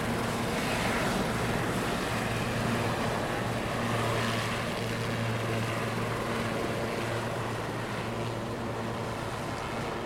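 A helicopter's engine and rotor drone steadily and loudly throughout, a constant roar with a low humming pulse underneath, with no voices. The helicopter stands on a sandbank where the ship normally moors, as three men in orange overalls board it with a seal pup being rescued.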